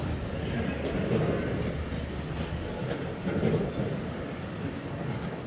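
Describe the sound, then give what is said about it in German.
A freight train rolls into a main railway station with a steady low rumble of wheels on track, faint high squeals and clanks rising now and then, continuous throughout. “Noch ein einfahrender Güterzug in den Hauptbahnhof.”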